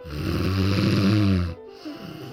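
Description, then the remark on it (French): A single loud, rasping snore with a deep, rattling tone lasts about a second and a half, then cuts off into a quieter breathy exhale. “Avec Radio Courtoisie, partez pour 6 heures de réjection, de ronflement”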